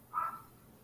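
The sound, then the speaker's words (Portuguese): A single short dog bark, fairly faint, heard on its own against a quiet background with no one talking. “O cachorro tá latindo.”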